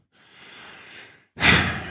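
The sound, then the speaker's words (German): Audible breathing: a soft inhale lasting about a second, a brief pause, then a louder, breathy exhale like a sigh. No speech. “du hörst mich atmen”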